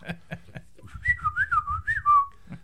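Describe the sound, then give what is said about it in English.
A few short electronic chirps lead into a warbling, pitch-sliding whistle that rises and falls like R2-D2 droid beeps and whistles, fairly loud and alone with no talking. “I don't know how well it's going to work, but it's his R two D two translator, right?”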